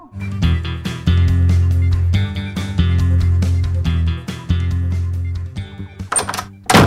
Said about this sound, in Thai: ทำไมปิดประตูเสียงดังนักล่ะลูก นั่นนะสิพ่อสะดุ้งเลย